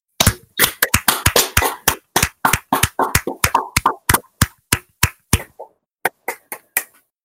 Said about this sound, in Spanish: Pido a todos los que están en el staff que desactiven el silencio de sus micrófonos, porque el aplauso que tenemos que darle a este hombre tiene que ser de verdad.